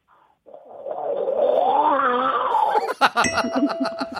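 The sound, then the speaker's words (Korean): A person does a vocal impression of water draining down a sewer drain, a sustained wet, warbling gargle that breaks into choppy bubbling bursts near the end, loud with no talking. “하수구 물 빠지는 소리 한번 들어볼까요?”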